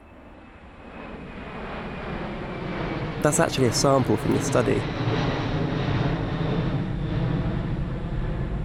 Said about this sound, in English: The participants would go to bed, dressed up like Robocop wearing the monitors, and throughout the night they would be played a controlled number of airplane sounds, like this one.